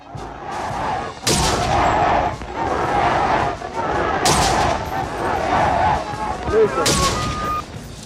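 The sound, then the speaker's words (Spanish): Sharp gunshots crack out at intervals over a dense, continuous din of shouting voices throughout a city during armed resistance, with a few loud blasts standing out from the chaotic crowd noise. “Se escuchaban gritos y disparos por toda la ciudad”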